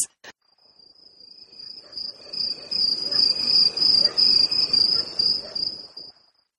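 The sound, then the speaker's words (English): A fire alarm chirps in a steady, high-pitched, cricket-like trill that runs the whole time, over a low, busy rumble of background noise that grows louder partway through. “It sounds like crickets.”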